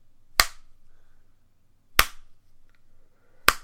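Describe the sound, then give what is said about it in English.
Three slow, deliberate hand claps, each sharp and crisp, evenly spaced about a second and a half apart, with near silence between them and no talking. “and he does it for a minute, and everyone's like, no one's clapping along, everyone just stays quiet, and then he goes, Every time I clap my hands, a child in Africa dies.”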